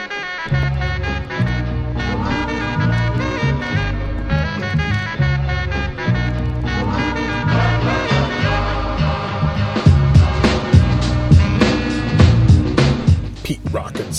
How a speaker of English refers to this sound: Smooth. This is one of my favorite beats of all time. Actually, all the beats that you hear on the KMC show are are favorites of mine in the personal collection of KMC me.